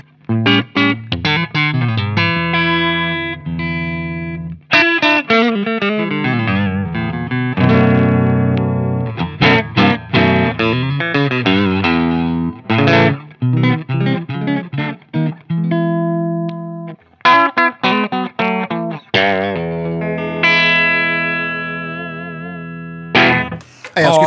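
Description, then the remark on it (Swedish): Clean electric guitar, a Stratocaster with Raw Vintage pickups through a PV5150 amp simulator, plays a loose run of chords and single notes with some bends and sustained ringing tones. It is steady throughout, with no talking. “Okej, jag spela lite clean stratta.”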